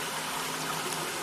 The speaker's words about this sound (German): Und ihr könnt es hier im Hintergrund rauschen hören, weil es läuft in einen kleinen Behälter.